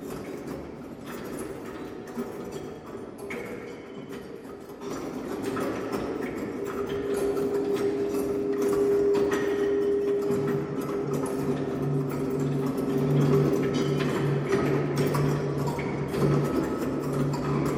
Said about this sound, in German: diese zerlegten Klänge von alten Musikinstrumenten aus der Sammlung der Stiftung Händelhaus. Genau, da hören wir jetzt mal kurz ein paar Takte rein.